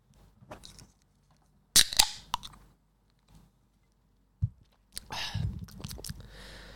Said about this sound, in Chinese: 前阵子有收到听众是呃回馈是说他他们很喜欢这个节目一开始的时候的开啤酒罐的声音，嗯，因为他们觉得好像真的有一个人在旁边陪自己喝酒的感觉。